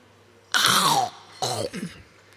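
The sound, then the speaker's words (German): Two loud crunches of someone biting into an apple in a radio studio, the first longer and sharper, followed by a second crisp bite and chewing, with no talking. “reinbeißen, dass man das hört, wie lecker der”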